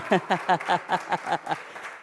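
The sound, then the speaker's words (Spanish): A church audience claps in a steady, quick rhythm, about five beats a second, applauding Christ, with a baby among them clapping and voices calling out over the clapping. “La bebé está aplaudiendo, ustedes tienen que aplaudir también.”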